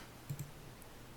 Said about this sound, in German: Dann würfel ich erstmal den D10.